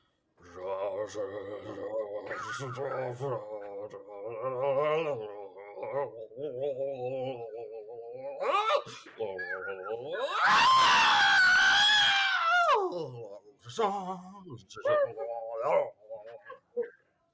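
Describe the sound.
A voice sings with wavering, melodic pitch, then bursts into a loud, high-pitched screeching wail for about three seconds before dropping back to quieter vocalizing.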